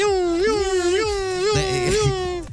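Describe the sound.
A person's voice mimics a neighbor's car alarm, holding a loud, continuous tone that repeatedly swoops up and wobbles in quick cycles for a couple of seconds.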